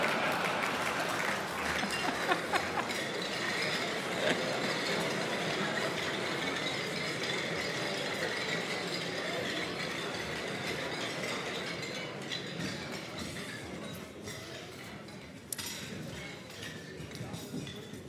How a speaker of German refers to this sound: Da stoßen wir drauf an, komm, Prost jetzt.